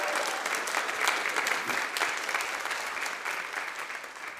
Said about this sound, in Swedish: Det är glädje och fest och värt en stor applåd.